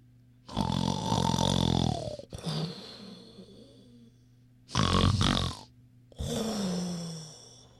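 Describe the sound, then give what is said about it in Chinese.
A wolf lying under a tree in a meadow snores loudly and raspingly in four long, heavy breaths separated by short pauses, each a deep, rumbling growl-like snore with no talking over it. “他们来到了草地上，只见狼还躺在树下打呼噜”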